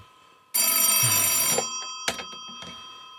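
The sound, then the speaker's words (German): A telephone bell rings loudly in one long, rattling burst lasting about a second, followed by two short, sharp jingles. “Telefon”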